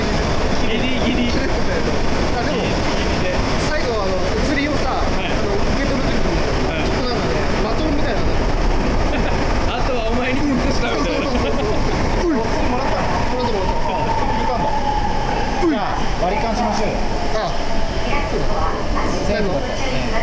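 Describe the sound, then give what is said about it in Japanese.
A steady, loud rumble of a Sapporo Municipal Subway Namboku Line train in Hokkaido, Japan, heard from inside the carriage as it reaches Jieitai-mae Station, with continuous low droning and rattling, while people talk over the noise throughout. “地下鉄内での収録のため環境音抜群でお送りとなりますのでご注意ください”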